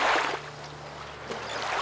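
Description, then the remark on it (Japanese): Gentle water laps and splashes continuously around a small boat on Lake Erie, one of the Great Lakes, between the United States and Canada, with a steady low engine-like hum underneath, on a sunny, warm day; no voices, just a calm ambience. “あれここはボートの上だ”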